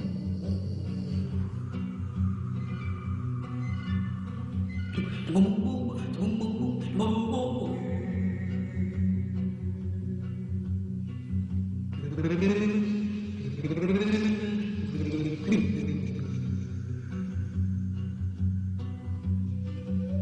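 A woman sings a melody with dramatic swooping glides and warbling, bird-like ornaments over a steady, sustained instrumental backing, loud and close throughout.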